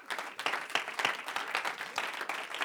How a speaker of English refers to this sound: If you're going to help me preach, why don't you give the Lord one more great hand clap of praise all over this house?